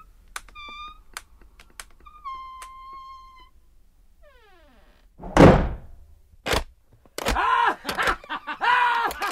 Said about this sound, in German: Kaum hatte ich die Schwelle überschritten, fiel hinter mir plötzlich die Tür ins Schloss.